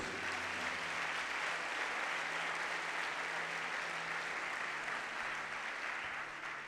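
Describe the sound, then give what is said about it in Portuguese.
A church audience applauds Jesus during a sermon with a dense, steady wash of clapping that holds at full strength for the whole stretch, easing only slightly at the end, with faint low sustained tones underneath. “E se você crê, aplauda Jesus.”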